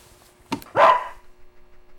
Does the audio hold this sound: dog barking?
yes